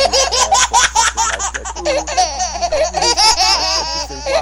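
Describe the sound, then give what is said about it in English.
A baby laughing in bursts of high, bubbly giggles and squeals, fairly loud, with short breathy pauses between the peals and no talking. “you feel joy, you feel laughter. It's that sound of this.”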